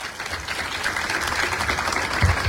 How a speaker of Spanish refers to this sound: vamos a darle un fuerte aplauso para ustedes.